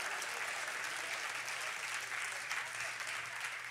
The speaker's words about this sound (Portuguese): Você deveria dar uma glória bem forte aí no teu lugar, aplaudir o teu Deus e falar: Eu vou romper os limites naturais da minha vida.